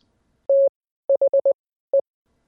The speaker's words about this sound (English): Imagine you're listening to a bunch of dots and dashes.